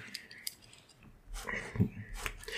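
rummaging

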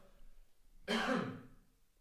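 cough

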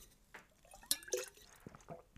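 drink being poured

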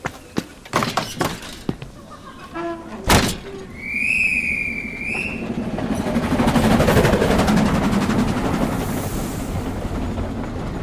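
train departing

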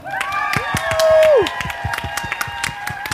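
audience cheering and applauding

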